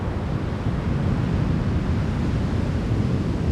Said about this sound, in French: sur une des plages près de Bayonne. Le son de l'océan dans le brouillard. ça roule, ça roule très très fort des vagues euh, en 2-3 mètres de haut.